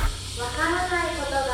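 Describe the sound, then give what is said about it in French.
A small recycling truck that drives around residential neighbourhoods all day blares a tinny, distorted loudspeaker announcement in the street to collect household appliances, steady and moderately loud over a constant hiss. “Alors ce que vous entendez là, c'est des petits camions de recyclage euh, qui euh, naviguent dans les quartiers toute la journée.”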